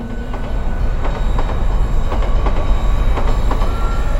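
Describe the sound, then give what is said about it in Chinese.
A train rumbles along steadily, its wheels tapping out a regular clickety-clack over a loud, continuous low roar, approaching from a distance as it is about to pull into a station. No one speaks, and no distinct whistle stands out. “远处的汽笛轰鸣由远及近，一列火车就要进站了。”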